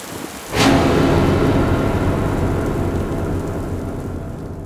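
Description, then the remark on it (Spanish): A sharp crack of thunder breaks out and rolls into a long, heavy rumble over steady pouring rain, slowly fading. No one speaks. “Ahora corramos, no quiero morir bajo esta lluvia.”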